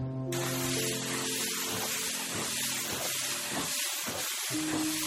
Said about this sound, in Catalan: Es treu la roba, desenrotlla la mànega, obre l'aixeta i estira aigua per sobre.